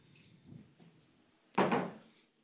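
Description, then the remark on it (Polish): A short splash of water poured from a jug into a glass, lasting about half a second, after a few faint handling knocks. “Mam tutaj swój dzbanek z wodą i szklankę.”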